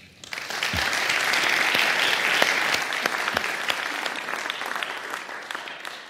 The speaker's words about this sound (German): Und ich bitte Sie um einen ganz, ganz herzlichen Applaus für die Jury.